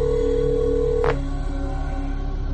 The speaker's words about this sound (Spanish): Escuchas cómo se acerca mientras tienes el rítmico tono de tu celular en el oído derecho.